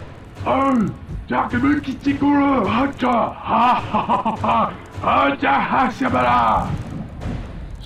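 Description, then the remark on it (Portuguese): A single voice imitates several orcs talking loudly inside, in guttural gibberish: a continuous stream of rough, nonsense chatter with rising and falling pitch, loud for about eight seconds. “você escuta todo o barulho de vários orcs conversando lá dentro, falando coisas.”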